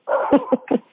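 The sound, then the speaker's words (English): A small dog of about ten pounds barks in three quick, sharp yaps about a fifth of a second apart, with a whiny, sustained yelp running underneath. “That's my dog, but he's like ten pounds”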